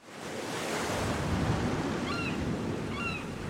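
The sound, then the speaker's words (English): Soft, steady surf of the calm Philippine Sea at sunrise washes continuously in a broad hiss, with a few faint bird calls chirping briefly over the water in the background. “The rising sun shimmered across the surface of the Philippine Sea. The crystal blue ocean was placid, and small schools of flying fish skimmed off the sea, flashing their silvery wings.”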